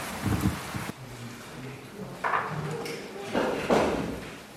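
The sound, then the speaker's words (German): Chairs being carried in and set down indoors as people move inside: a few dull thumps and scraping knocks at irregular intervals, over a steady rushing background with faint voices murmuring. “So, jetzt sind glaube ich auch fast alle Stühle drin und alle Menschen drin.”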